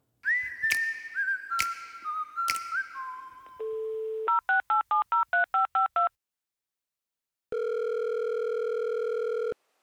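Telephone dialing to reach an agriculture teacher's voicemail: gliding whistly tones with sharp clicks, a brief steady tone, then about ten rapid touch-tone beeps. After a short silence, a loud sustained phone tone holds to the end. No talking.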